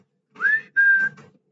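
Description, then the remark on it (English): A person whistles a short two-part call to a pet dog: a quick rising note followed by a held, steady tone, clear with no talking. “He comes to the whistle though.”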